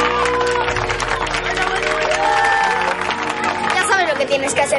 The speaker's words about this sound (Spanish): Todos aplauden al entrenador.